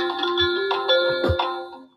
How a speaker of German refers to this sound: Telefon.